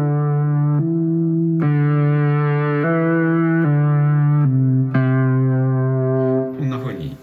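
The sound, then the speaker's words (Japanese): A simple synth melody of sustained single notes using only do, re and mi, about eight notes in a slow even rhythm, loud, with a buzzy, slightly distorted tone and no talking; a melody idea for the first four bars of a song. “はい、ドトレとミだけのシンプルな。”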